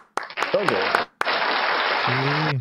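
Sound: applause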